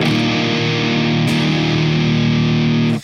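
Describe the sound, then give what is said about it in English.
A sustained electric guitar chord played through a Xenia overdrive pedal rings out thick and saturated, with a slight re-strum partway through, then cuts off abruptly at the end. No voices. “But I like that because the main reason why I dig it is because at a low level, it has an absolutely astonishing drive tone.”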